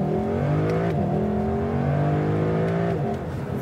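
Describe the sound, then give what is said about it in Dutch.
A naturally aspirated car engine without turbos revs hard and climbs through the gears, its harmonic roar rising steadily with brief dips at each shift, loud with no talking. “En dat is het mooie, zo'n atmosferisch blok. Er zitten dus geen turbo's op.”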